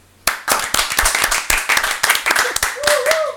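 applause

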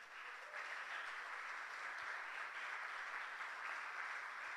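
audience applauding

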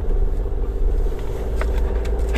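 car driving

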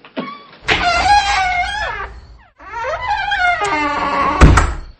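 door being closed shut

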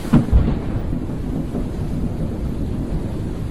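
thunderstorm with heavy rain

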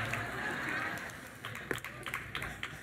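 audience applauding

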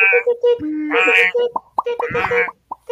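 alarm going off

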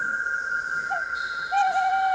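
bird call

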